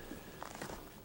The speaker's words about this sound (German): Das ist kein Wildschwein. Nee. Da geht jemand ums Wohnmobil. Ja, das hört sich so an.